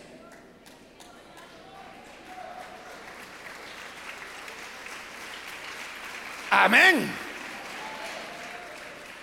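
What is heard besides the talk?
audience applause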